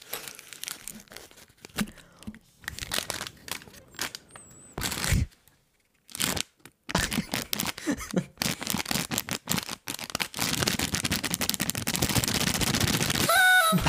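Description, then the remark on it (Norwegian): Paper rattling and crinkling in sharp, irregular bursts with brief pauses, building into a dense continuous crackle and a final tearing rip near the end. “Oi, nå ble det høl.”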